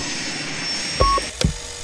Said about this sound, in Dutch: Tante heeft die motor draaien en die soep wordt froid non de jus.